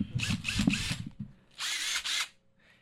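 power drill whirring

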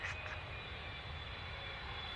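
airplane cabin engine drone

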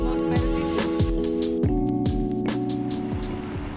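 car driving

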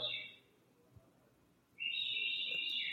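man whistling

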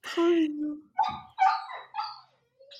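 dog whimpering

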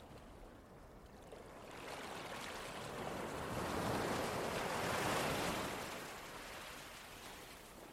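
waves on a beach

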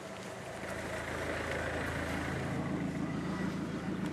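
car driving past

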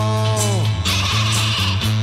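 sheep bleating

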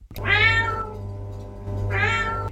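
cat meowing

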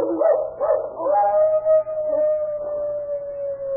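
dog howling

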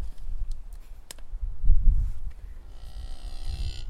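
cow mooing

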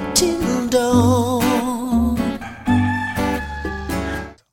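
hen clucking

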